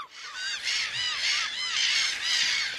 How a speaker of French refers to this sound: Et la mouette rieuse, c'est plutôt ça, alors.